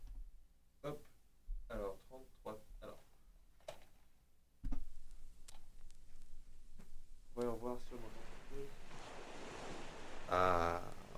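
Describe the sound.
Sea waves wash in a steady, rushing roar that grows louder midway through, with voices talking intermittently over the surf.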